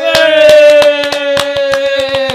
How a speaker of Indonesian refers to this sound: Weh, kita tepuk tangan.